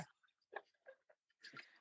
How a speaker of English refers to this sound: Let me pause. Where is my water? Let me just take a little sip real fast.